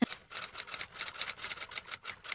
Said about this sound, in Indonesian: nah kalau misalnya kita ikutin emosi itu ya beneran bikin surat itu ngetik gitu kan